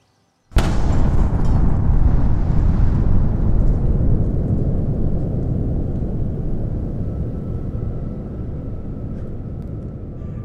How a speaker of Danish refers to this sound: Lyden af det største brag nogensinde begynder vores eventyr. The Big Bang.